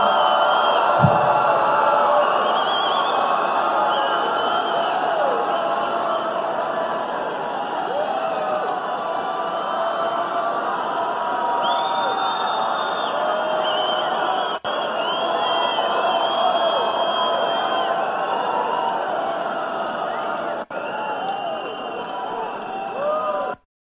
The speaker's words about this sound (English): That was the biggest applause line of the night. And the applause happened because of what we'll just call a pregnant pause.